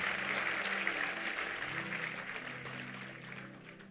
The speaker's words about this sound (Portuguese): Recebe essa palavra? Aplauda Ele bem forte. Vamos ficar em pé.